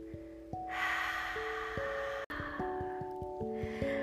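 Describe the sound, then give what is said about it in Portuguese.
A deep breath drawn in through the nose, then a long, loud exhale through an open mouth, both airy and breathy over soft, sustained musical notes. “Abre a boca e solta bem alto.”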